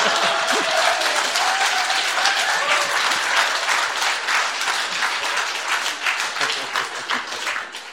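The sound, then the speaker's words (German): Sustained audience applause for a picture of a bus stop being shown, a dense wash of many hands clapping at a steady loud level for several seconds, with no voices standing out above it. “Ich glaube, selten hat eine Bushaltestelle so viel Applaus bekommen.”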